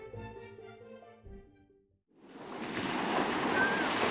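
A short stretch of soft melodic music gives way, after a brief pause, to the loud, rushing roar of sea waves breaking on shore, swelling and then continuing steadily.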